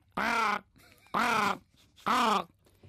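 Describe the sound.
A person imitates a jackdaw, giving three loud, harsh, nasal caws at a steady, evenly spaced rhythm with short quiet gaps between them, demonstrating how to communicate with birds.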